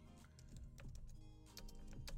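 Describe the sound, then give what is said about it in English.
Quiet, irregular keyboard typing: scattered clicks and taps at an uneven pace over a low, steady background hum, with no one speaking. “I'm just typing over here. I'm typing in two different places.”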